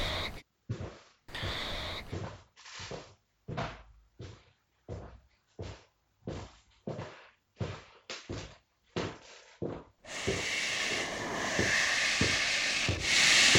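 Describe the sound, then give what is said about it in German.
A telephone line's scratching heard inside a house: about a dozen rough, rhythmic scraping strokes with short gaps, then a steady, louder hissing scratch that carries on without pause. No voices. “Das kratzende Geräusch der Telefonleitung ist nun immer deutlicher im Haus zu hören.”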